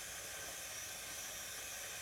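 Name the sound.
electric kettle heating water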